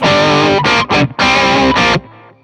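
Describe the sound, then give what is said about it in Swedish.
Distorted electric guitar played through an overdrive pedal with the mid-range knob turned fully up, giving a thick, mid-heavy overdriven tone; a few loud sustained chords and short stabs ring out before cutting to quiet noise. “Ja, det är tufft med ganska mycket mellanregister.”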